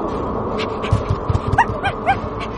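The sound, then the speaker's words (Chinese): A small dog, Toto, whimpers and gives a few short, high yips in quick succession as it darts under a quilt inside a house carried aloft by a tornado, heard over a steady low rumble with soft thudding beats underneath; no one speaks. “小狗托托嗖的躲进了被子里”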